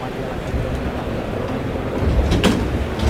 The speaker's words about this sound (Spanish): Abren la puerta de, de acceso al ruedo de Toriles. Está esperando que pase la cuadrilla de eh, Monosabio para abrir la puerta y que salgan los bueyes.